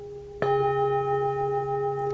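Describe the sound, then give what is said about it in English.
During an insight meditation talk, a bell is struck once, sharply, then rings on with a steady, sustained shimmer of layered tones that barely fade. No one speaks. “Any difference at all between the sound from this voice and the sound from this bell?”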